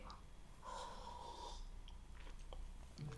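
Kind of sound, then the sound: food or drink, sipping coffee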